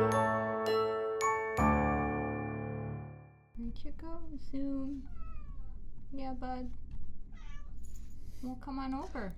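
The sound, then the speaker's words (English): A short tinkling musical jingle ends, then a young male cat gives several thin, feeble meows at uneven intervals, moderately loud against a quiet background. “He has a very pathetic meow.”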